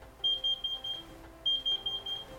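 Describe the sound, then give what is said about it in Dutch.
A kitchen timer alarm beeps in two quick bursts of four high, shrill tones with a short pause between them, fairly loud over a low background murmur. “Onze wekker. Onze, de wekker. Zet het maar al af”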